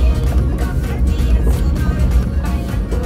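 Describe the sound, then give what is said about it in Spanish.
A garbage truck rumbles past with a steady, loud low-frequency engine drone and mechanical clatter, continuous throughout. “Es que está pasando el camión de la basura”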